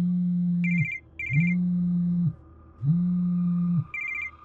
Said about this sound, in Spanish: Mi teléfono sonó a eso de las 3 de la tarde.